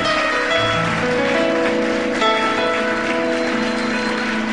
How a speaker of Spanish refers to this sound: Y dele fuerte el aplauso al Señor. Dele fuerte el aplauso al Señor. Vamos, déselo fuerte.